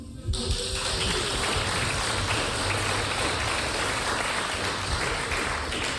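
Sustained audience applause erupts almost immediately and continues steadily for about six seconds, a dense, loud wash of many hands clapping with no speech over it.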